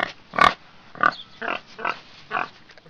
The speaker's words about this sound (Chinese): 咦，小朋友们听听，是什么声音呢？你猜对了，小燕子姐姐给小朋友们请来的是小猪猪。咱们的猪猪呀，是一只勇敢又聪明的小猪。